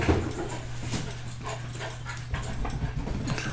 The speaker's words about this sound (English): My puppy's here see her. All right, there she is.